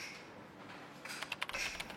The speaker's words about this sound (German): Er tippt weiter.